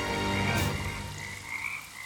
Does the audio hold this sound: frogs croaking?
yes